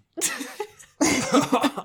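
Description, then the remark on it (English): Two loud coughing fits, each a rough, raspy burst followed by a short break, with no talking around them. “I'm like coughing now.”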